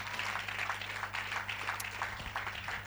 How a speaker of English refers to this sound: Give the Lord a mighty clap offering.